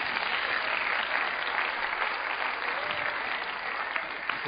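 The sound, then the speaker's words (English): An audience claps their hands for Jesus, a dense, steady wash of applause from many people that holds at an even loudness throughout. “Clap your hands for Jesus, someone.”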